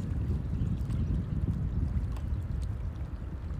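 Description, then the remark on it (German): Steady water lapping and gentle splashing, a continuous low wash of sound with small irregular splashes throughout and no voices. “das Plätschern des Wassers.”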